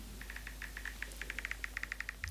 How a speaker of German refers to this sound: also Screenshot-Geräusch und dann tippen.